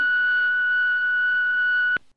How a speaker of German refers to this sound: Na, egal, dann du nach dem Piepton, wa?